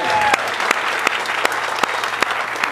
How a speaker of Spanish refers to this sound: Me encanta, regálate un aplauso.